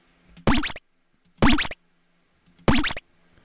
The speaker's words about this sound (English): This is your chip tune sci-fi power up.